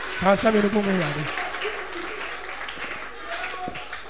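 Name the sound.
audience clapping hands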